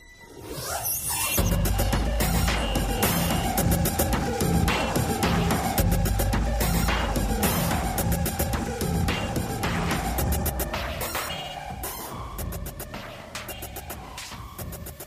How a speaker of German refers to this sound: Ja, das, was wir da hören, ist durch Reiben, Klopfen und Streichen eines Polizeischutzschildes entstanden. Und so ein Schild ist natürlich kein x-beliebiges Plastikteil, sondern vor allem auch ein emotional aufgeladenes Objekt.